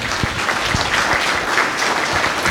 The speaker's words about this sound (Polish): Słuchajcie, oklaski dla naszych aktorów. Pięknie.